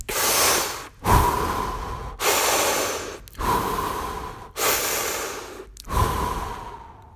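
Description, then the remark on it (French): Fast, heavy breathing through an open mouth as a breathing exercise, six strong airy breaths in a steady rhythm, each in and out blending together, with no talking. “Par contre, si c'est l'inverse, si vous trouvez que vous êtes trop mou et que vous avez oh, pas trop la pêche, etc., donc là, l'idée, ce sera plus de faire de la respiration par la bouche et d'aller plus rapidement.”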